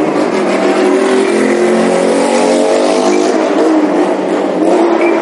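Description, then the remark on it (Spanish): A loud car engine revs hard as it passes by on a Sunday, its harmonic roar rising and sweeping in pitch, then revving again near the end. No one speaks. “Aquí el control de, de ruidos, no sé qué pasa en este país, porque se ve en cada moto, se ve cada moto y cada coche a veces, que es alucinante lo que llega a sonar.”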